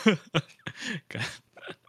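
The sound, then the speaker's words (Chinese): A run of about five short, abrupt hiccups smelling of cola, each a sharp voiced gulp with a quick rise and drop in pitch, spaced irregularly and fairly loud, with no talking between them. “哎，你不要打嗝，你不要打嗝哦，都是可乐的味道。”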